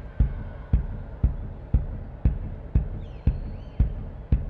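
A big bass drum, played by superfan John Adams in the bleachers at an Indians home game, booms out nine steady, evenly spaced beats, roughly two per second, ringing over a low wash of crowd noise in a large, open stadium.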